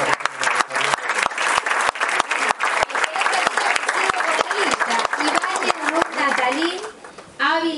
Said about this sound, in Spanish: Que también, vamos a dar otro fuerte aplauso.